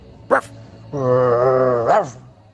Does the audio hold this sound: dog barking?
yes